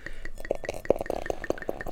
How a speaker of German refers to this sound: gieße es jetzt hier gerade ins Glas und wie du schon gesagt hast, sehr schöner, intensiver, fester Schaum.